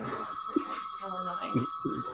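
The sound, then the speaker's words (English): A steady electronic bell rings continuously in the room, a bright sustained tone at moderate volume, with faint voices and small movements in the background. “Why is this always ringing, you guys?”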